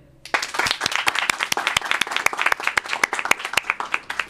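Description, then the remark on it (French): A small group bursts into applause for themselves at the end of a radio programme, with dense overlapping claps and sharp individual hand slaps standing out, sustained for a few seconds. “On peut s'applaudir.”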